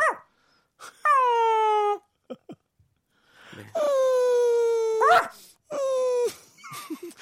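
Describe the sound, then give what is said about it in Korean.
A person imitates a dog howling: three long, loud, drawn-out howls that slide downward in pitch, separated by brief pauses and small vocal sounds. “아까 제가 했던 어, 강아지 소리보다 형이 더 잘하시는 것 같아요.”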